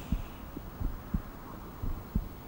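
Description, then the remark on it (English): A steady heartbeat thuds in low, muffled pulses, paired beats repeating about once per second over a faint background hiss, with no talking. “and the electrical activity of every heartbeat.”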